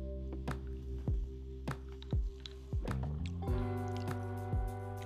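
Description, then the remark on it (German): Sound of Methusalem Classic Cuban rum with cola poured over ice in a glass: a run of gurgling glugs and drips, a few ice clinks, then a soft fizzing toward the end. No voices. “Es ist ein Methusalem Classic mit Cola on the Rocks.”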